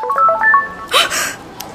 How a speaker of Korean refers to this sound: 문자 신호음이 울린다. 수지는 화들짝 놀라서 휴대폰을 무음으로 바꾼다.